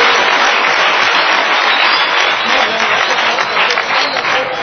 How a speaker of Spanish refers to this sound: Les voy, a, les voy a pedir un segundo aplauso para ella porque fíjense que es nuestra principal promotora de los fandangos por la lectura.